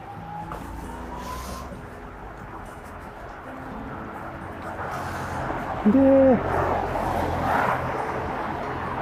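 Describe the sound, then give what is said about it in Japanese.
Steady street traffic rumbles throughout on a road with heavier car traffic, growing louder in the second half as vehicles sweep past, with a brief tonal hoot-like beep cutting through partway along. “あとあれかなまあ今ちょっと車通り多い方に入っちゃいましたけれども”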